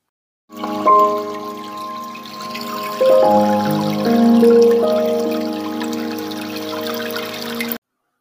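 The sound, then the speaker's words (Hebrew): Water runs steadily from a tap or pipe for several seconds, a continuous rushing flow with a humming, shifting tone that changes pitch a few times before cutting off abruptly. “אנחנו חייבים לצרוך פחות. למשל, מים. מקלחות, לא חייבים המון המון זמן.”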